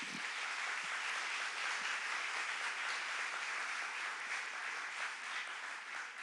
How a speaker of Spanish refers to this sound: Dar un aplauso a Jesús.